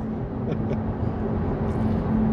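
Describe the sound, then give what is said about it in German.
A steady car engine and road rumble with a faint constant hum inside an electric car driving in Hof, Germany, holding an even loudness throughout, without any voices. “Das Auto gibt mir recht.”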